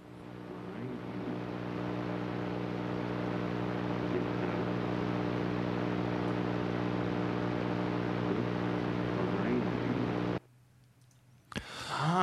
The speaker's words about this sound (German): Okay, also wir haben ein heftiges Rauschen gehört und da sagt irgendjemand, look behind you. Get wir, out behind you. Wir hören es uns nochmal an, Achtung. Okay, also es war eine mega crappy Aufnahme, super verrauscht